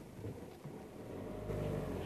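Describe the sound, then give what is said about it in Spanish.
A car engine hums steadily with a low, rumbling drone that swells slightly louder toward the end, as cars stop in the middle of a city street. No one speaks. “Los coches se paran en medio de la calle.”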